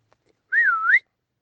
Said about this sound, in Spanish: Entonces oyeron a lo lejos a la abuelita de los niños silbar.